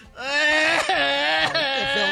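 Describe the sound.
A man's voice imitates how men cry at a funeral: a loud, sustained wailing cry, a continuous moaning howl with a few wavering pitch breaks, strong for about two seconds.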